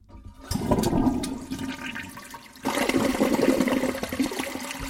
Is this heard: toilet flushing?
yes